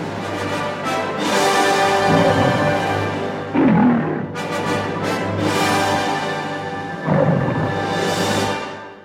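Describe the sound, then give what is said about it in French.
The Metro-Goldwyn-Mayer lion roar with its loud, brassy orchestral fanfare for the American production company; the lion's deep roar bursts through twice, once partway in and again near the end. Nobody speaks. “Le lion de la métro Goldwyn Mayer, accolé à une fanfare composée par Franz Waxman pour la maison de production américaine.”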